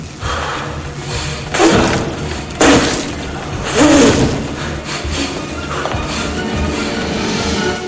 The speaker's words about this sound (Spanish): A continuación, rompe el cristal de una enorme bombilla dejando al aire el hilo incandescente de su interior.